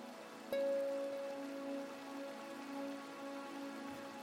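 Steady rain patters on a hard surface in a dense, even wash of drops, with a single sharp ringing strike near the start that hums on faintly beneath it.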